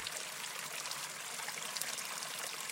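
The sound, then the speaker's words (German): Water from a spring on the grounds of a brewery estate trickles and burbles steadily, a continuous bright splashing with no voices and no pauses. “Und selbst das Wasser stammt aus einer Quelle auf dem Grundstück.”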